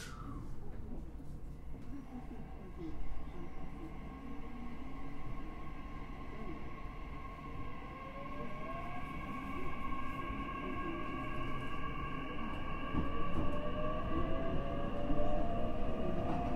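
A Nishitetsu 9000 series train runs from Kasugabaru toward Futsukaichi in Japan, with a constant low rumble and rattle, while its electric motors hum in layered tones that slowly climb in pitch, growing somewhat louder toward the end.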